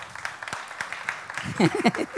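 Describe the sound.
Applause from an audience: a steady patter of many hands clapping at a moderate level, with voices rising over it in the second half.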